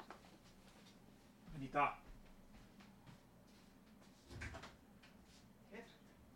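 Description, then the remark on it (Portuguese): A door is opened to let in a dog that was scratching at it: a sharp latch clunk and rattle, then a couple of seconds later a duller thump and a faint knock, otherwise quiet. “Ei, caramba, minha cachorra tá me pedindo para abrir a porta, não vou me concentrar se eu não abrir, peraí, fica aí.”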